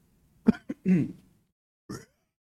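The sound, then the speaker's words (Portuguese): A voice imitates a guttural metal growl: a few short, rough throaty bursts, one longer raspy snarl, then a final brief grunt after a short pause. “o … tava fazendo gutural.”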